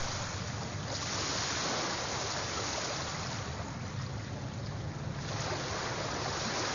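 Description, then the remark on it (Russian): Steady hiss of sea surf washing onto a white sand beach, swelling at intervals as waves roll in, swirl into small eddies and draw back in foam, continuous with no voices. “Волны с шипением накатывает на слепительный белый песок пляжа, закручиваются маленькими водоворотами и откатывают назад в хлопьях пены.”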